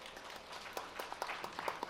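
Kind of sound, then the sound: crowd, applause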